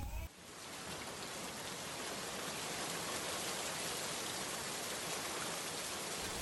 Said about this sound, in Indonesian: Ya, hujan.